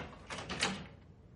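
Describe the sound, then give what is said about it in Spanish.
A mother leaves a bedroom and the door swings shut with a soft, breathy rush of noise lasting about half a second, followed by a faint click of a key turning in the lock. No one speaks. “Sale de la habitación y cierra con llave.”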